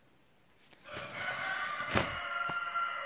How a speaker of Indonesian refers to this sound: Tuh ada ayam karena nenek saya ini memelihara ayam